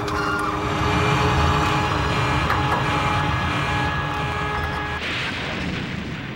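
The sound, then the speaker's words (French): An airplane, climbing after an aborted landing in fog, crashes through treetops, spins and catches fire: a loud, sustained roaring rumble with a steady engine-like drone, shifting to a rougher burst of noise near the end. No voices. “L'avion laboura les arbres, tournoya et prit feu.”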